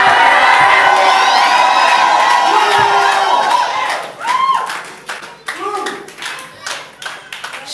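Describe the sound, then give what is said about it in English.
An audience shouts and cheers in a loud, dense roar for about four seconds, then the noise breaks into scattered clapping and fading, intermittent cheers. “Let heaven hear you with a shout.”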